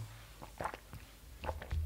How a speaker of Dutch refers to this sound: Dan even een slokje.